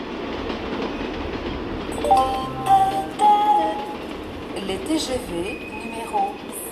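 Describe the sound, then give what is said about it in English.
Busy mainline railway station ambience in France in August: a steady rumble of trains with intermittent high metallic squeals and tones, and indistinct voices murmuring in the background throughout. “August in France, when Paris empties out, brings an annual ritual to the country's mainline railway stations.”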